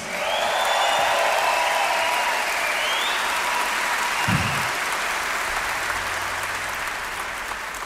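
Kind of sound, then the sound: crowd, audience applauding and cheering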